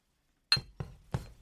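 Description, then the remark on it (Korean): Three bright glass clinks, a sharp first tap followed by two more spaced about a third of a second apart, each with a short ringing tail and a soft thud beneath; no talking. A man is handing a glass cup to a woman who refuses to drink. “안 마시겠다고 도리질 치는 그녀에게 남자는 잔을 건넸다.”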